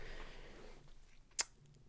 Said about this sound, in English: Let me move this mic so I can lay out these papers. I got that paper, not the one you can spend on stuff, but the stuff that you can write on and then talk to yourself in an empty room